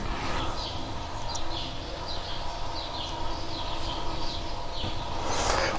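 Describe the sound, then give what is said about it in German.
Birds chirp repeatedly in the background in the morning, a steady scatter of short high calls over a low, constant refrigerator hum, with no one talking. “Im Hintergrund hört ihr die Vögel.”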